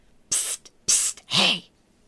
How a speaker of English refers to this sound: They jumped as a low whispering sound carried from the well.